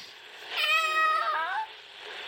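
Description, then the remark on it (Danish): A child's voice imitates a cat's meow: one drawn-out, high-pitched mew lasting about a second, clear against a quiet background. “Øh, jeg kan ikke spænde, men jeg kan godt sige som en kat.”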